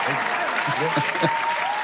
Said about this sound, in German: Hier, drück mal Applaus hier.